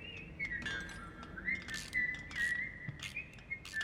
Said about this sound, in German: Ah, er pfeift einfach rum.